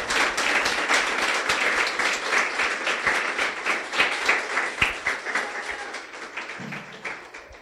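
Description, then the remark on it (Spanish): A church audience applauds the Lord together, a dense, sustained burst of many hands clapping at once that stays steady before gradually thinning out near the end. “Dile un aplauso al Señor.”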